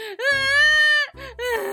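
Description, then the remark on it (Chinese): A loud, wailing cry with a wavering pitch: one long sustained howl, a brief catch of breath, then a second rising wail. It is a voiced crying sound effect for a dinosaur called Long Neck crying, heard alone. “于是长脖子又哭了起来。”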